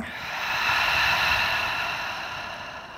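slow exhale

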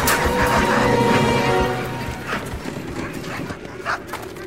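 dogs barking and whimpering

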